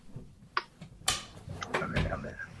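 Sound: drawers being opened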